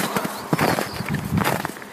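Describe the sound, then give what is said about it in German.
Footsteps crunching through deep snow on a walk through a snowy Alpine landscape, a steady series of gritty crunches with a broad rough texture, fairly loud and continuous across the stretch with no talking. “Schön durch den knirschenden Schnee kann man auf jeden Fall.”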